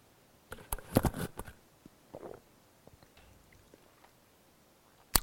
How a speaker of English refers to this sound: Sorry, I probably should have put the mic on after I swallowed that, but I guess you get to hear what goes on sometimes.